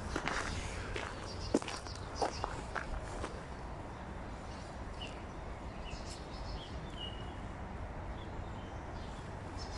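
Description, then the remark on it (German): Outdoor forest ambience on a walk home along a woodland path, with a steady low rumble and soft rustling, faint footsteps crunching along the path early on, and a few bird chirps scattered throughout. “Und ja, wir hören jetzt noch ein bisschen die äh, Waldgeräusche an und ja, genießt es.”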